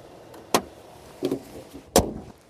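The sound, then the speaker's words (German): The bonnet of an SUV-style car with a 150 kW (204 PS) motor slams shut: a sharp metallic thump, a softer clatter, then a second heavy slam, with no one talking. “So, das machen wir zu und gucken uns das Interieur an.”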